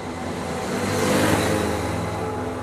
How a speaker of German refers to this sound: Er setzt sich auf seinen Roller und fährt zum Fitnessstudio.